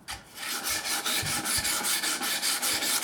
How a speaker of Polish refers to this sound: No już jest w miarę czyste, można poprawić jeszcze gładkim papierem.